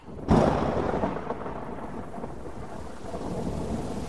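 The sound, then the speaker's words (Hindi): A sudden storm by a pond, arriving when no wind had been blowing: a sharp crack of thunder bursts out near the start, then rolls into a steady rumble over constant heavy rain that keeps hissing to the end. No voices. “अब ये क्या यार तूफान कहाँ से आ गया अभी तक तो हवा भी नहीं चल रही थी”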